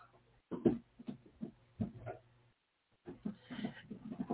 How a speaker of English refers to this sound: And my dog trying to get out of, out of the room.